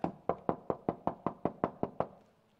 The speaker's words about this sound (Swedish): Se, jag står vid dörren och knackar.